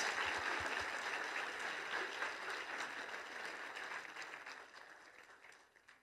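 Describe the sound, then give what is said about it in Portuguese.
A church audience in Moema applauds a group, clapping steadily in a dense, continuous wash of hand claps that holds strong, then gradually thins and fades toward the end. No one speaks over it. “Uma salva de palmas a esse grupo.”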